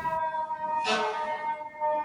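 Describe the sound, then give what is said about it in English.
An ambulance siren passes by on a street on Third Avenue in New York, a steady, piercing tone rich in overtones with a brief louder surge partway through, heard alone without any talking. “That, that's an ambulance passing me.”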